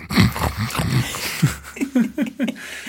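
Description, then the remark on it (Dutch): A man behind his monitor on a film set imitates a piglet with a quick run of short, snuffling snorts and grunts, about eight of them in a rhythmic burst, fairly loud with nothing else behind it. “En, eh, en als hij het dan goed vond, dan begon hij achter zijn monitor begon hij een beetje als een soort van varkentje te”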